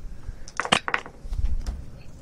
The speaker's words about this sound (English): Make a dice pool of like, let, us say six. Okay. And let, and and I'll roll the AC 130s or the pilot's dice pool, and let's see